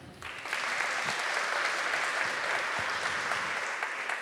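An audience in a church breaks into sustained applause for the Polish sign language interpreter, a dense steady wash of many hands clapping that swells in within the first half second and holds at a constant level, with no voices standing out.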